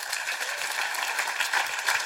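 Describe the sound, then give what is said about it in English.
An audience claps steadily, many hands blending into a dense, even patter of applause that holds at a constant loudness throughout, with no voices over it. “It must be angels that I heard cra- clapping.”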